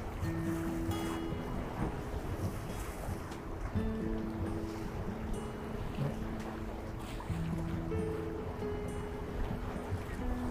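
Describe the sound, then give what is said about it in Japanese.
Ocean waves wash steadily against the shore in a continuous, fairly loud roar, with wind and a faint low mechanical hum underneath; no one speaks. “波の音聞こえますかねこれこんな感じで”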